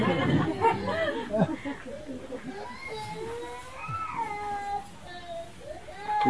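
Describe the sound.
A baby cries in wavering, drawn-out wails and whimpers that rise and fall in pitch, with a murmur of voices and room noise behind it.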